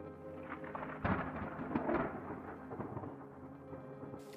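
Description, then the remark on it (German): Rumbling thunder rolls through a steady downpour, with a sharp louder crack about a second in, then the low roar continues and fades with the rain still falling. “Das Gewitter hat sich beruhigt, der Regen aufgehört und ich trete die letzte kurze Etappe für diesen Tag an.”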